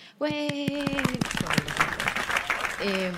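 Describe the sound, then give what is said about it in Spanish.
A crowd breaks into a dense, loud burst of applause to welcome the first contributor, sharp individual claps merging into a steady rattle, with a sustained harmonic tone sounding at the start and returning at the end. “Un aplauso”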